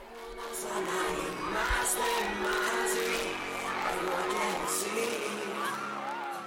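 A large crowd of fans of the most popular boy band of the decade screams and shrieks continuously, many high-pitched voices overlapping into a loud, sustained wall of excited yelling that barely lets up throughout.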